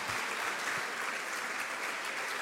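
An audience breaks into sustained applause for the Lord, a dense, steady wash of many hands clapping at once with no pauses or individual claps standing out.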